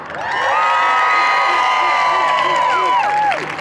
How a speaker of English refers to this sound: All right, if you are typically from second service, I want to hear a great loud shout and applause for yourself.